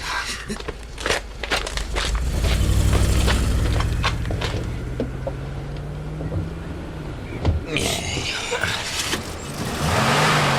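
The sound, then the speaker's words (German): Engines of the Piranhas' stolen cars rumble and then recede as the vehicles pull away, their drone fading amid scattered crunching steps and small clicks. “Die Autos der Piranhas sind schon fast gar nicht mehr zu sehen.”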